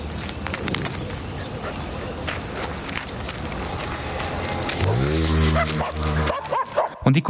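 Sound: street dog barking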